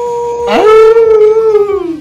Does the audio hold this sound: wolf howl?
yes